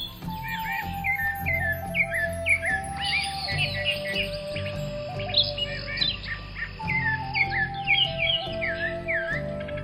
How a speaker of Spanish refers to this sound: Pero una mañana, el señor salió a pasear a la selva. Allí quiso acostarse un rato y se entretuvo horas completas al escuchar el canto de los pájaros.